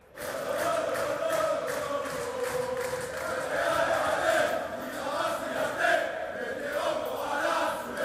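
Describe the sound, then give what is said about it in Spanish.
A large crowd of Real football supporters chants and sings together in the Piazza del Duomo by Milan Cathedral, Milan, at 2:22, a sustained, echoing roar of many voices with rhythmic swells, steady and loud throughout without any single speaker standing out. “Bueno, pues así suena la Real, así suena Milán en este sentido, las 2 y 22, con muy buen ambiente en esa eh, situación, con la Plaza del Duomo, la Catedral de Milán, evidentemente hoy visitando esos lugares.”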